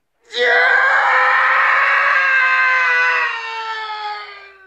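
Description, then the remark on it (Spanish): A single loud male scream, the Wilhelm scream stock movie sound effect, held for about four seconds with a slight falling pitch before tapering off, heard alone with no talking. “Eh, Dame un Wilhelm Scream, ¿no?”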